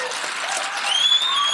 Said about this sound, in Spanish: Da un fuerte aplauso al Señor.